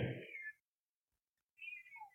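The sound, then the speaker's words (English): Two short cat meows separated by a brief silence, the second rising and bending in pitch. Fairly quiet, with no talking. “And, and cat, exactly.”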